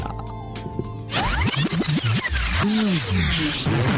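A rap song intro opens with a brief sustained tonal chord, then breaks into loud, rhythmic turntable scratches that sweep up and down for the next few seconds, with no vocals.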